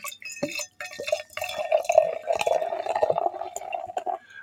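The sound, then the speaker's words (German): A bottle of quince cider is opened and poured steadily into a glass, a continuous gurgling splash lasting a few seconds after a brief clink and fizz at the start, with no talking. “Ich mache mal hier so auf. So und hinein.”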